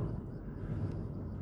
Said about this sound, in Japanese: 結構音入ってますかね、車のロードノイズ。もし聞こえづらかったら申し訳ありません。